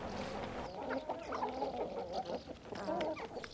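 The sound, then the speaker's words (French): Several hens cluck in a busy, overlapping chorus, with short irregular calls rising and falling over a steady outdoor background. “chercher dans la nature, elles sont autonomes hein, les poules, hein.”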